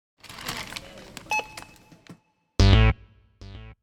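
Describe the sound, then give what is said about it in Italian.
Busy store clatter gives way to a barcode scanner at a supermarket checkout in Ohio. A cashier scans, for the first time in history, a barcode printed on a pack of fruit-juice-flavored chewing gum. Two loud, buzzy electronic beeps sound with a short pause between them, after a fainter tone earlier. “in un supermercato nell'Ohio una cassiera per la prima volta nella storia fa emettere questo suono alla cassa. Passando, un barcode stampato su un pacchetto di gomme da masticare al gusto di succo di frutta.”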